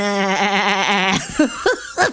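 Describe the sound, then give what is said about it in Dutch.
A person imitates a sheep with one long, quavering bleat lasting about a second, then breaks into a few short, choppy bursts that sound like laughter, fairly loud. “Schoon, ze, echt schaap.”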